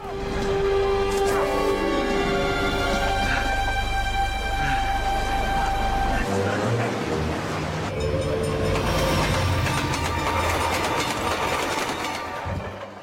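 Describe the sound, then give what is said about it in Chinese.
A moving train in a forest, which two people hop onto while fleeing police, rumbles loudly and steadily for about thirteen seconds, with rattling clatter and sustained tonal whines layered over the deep low roar. No one speaks. “只见二人汽车疾跑入森林，上蹿下跳扒火车。”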